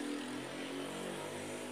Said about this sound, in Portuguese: A moto tá passando, peraí.